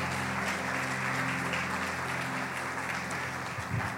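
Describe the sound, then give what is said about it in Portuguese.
A church audience applauds loudly for God during a sermon, a sustained, dense, steady wash of many hands clapping with no pauses, with a low steady hum running underneath throughout. “Você pode aplaudir bem forte ao nosso Deus?”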